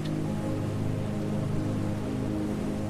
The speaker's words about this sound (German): Den Wasserfall können wir hören lange bevor wir ihn sehen. Gewaltige Wassermassen stürzen hier schäumend in die Tiefe. Das stille Gletscherwasser hat sich in einen fauchenden Tiger verwandelt.